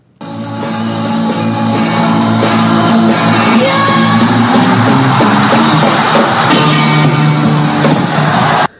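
A raw, sustained scream from a singer rings out over a loud live rock band and a roaring crowd, held at full volume for several seconds before cutting off abruptly.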